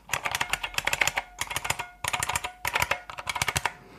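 Rapid, loud clacking on a Model M mechanical keyboard in quick bursts with short pauses between them, each keystroke sharp, with a faint metallic ping ringing underneath. No voices.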